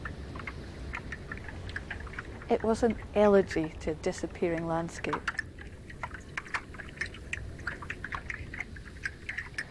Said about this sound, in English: So, of course, I set up a phone line. People everywhere could dial a number and listen live to the sound of a glacier melting.